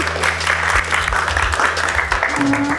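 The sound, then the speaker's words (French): An audience claps steadily, a dense wash of many hands with no pauses, fairly loud throughout, while a low hum runs underneath and a brief tone rises near the end. “On peut l'applaudir, bien sûr, bah oui.”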